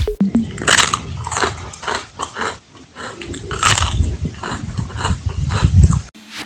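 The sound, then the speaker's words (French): Crisp crunching as someone bites into an ice cream wafer cone, a series of brittle snaps and chewing crunches repeating irregularly over several seconds with no talking. “Ja, es war das Geräusch, das eine Eiswaffel macht, wenn man hineinbeißt.”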